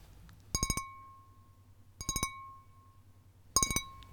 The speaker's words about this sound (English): As he waits for you to get the green liquid, he taps his nails on the side of a glass beaker.